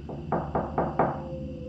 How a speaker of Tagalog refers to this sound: Wala na daw kaimik-imik yung nasa loob ng cubicle na parang wala ng tao. Kaya kinatok ito ulit